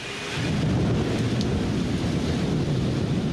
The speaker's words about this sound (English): Thunderstorms course through the city pulsing and pausing, blackening the sky.